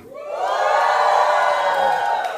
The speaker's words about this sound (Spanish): A ver, ¿cómo está el ánimo? A ver, dé un grito de júbilo al Señor.